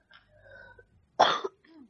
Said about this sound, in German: … hat einen Hustanfall.